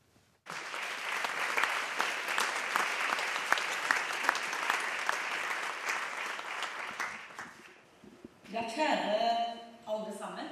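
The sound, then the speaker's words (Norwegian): A large audience applauds steadily for about eight seconds as Culture Minister Toril Vidvei enters the stage at the Arts Council Norway (Kulturrådet) annual conference in Lillestrøm, a dense wash of clapping that fades out before a person begins speaking. “Kulturminister Toril Vidvei ble møtt med applaus da hun entret scenen på Kulturrådets årskonferanse i Lillestrøm i går.”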